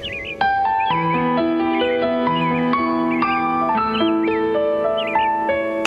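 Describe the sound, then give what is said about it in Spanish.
Short, repeated bird chirps trill every second or so over a steady backdrop of soft, sustained melodic tones that step slowly from note to note. No one speaks. “Además del cantar de los pájaros, ¿oyes algo más?”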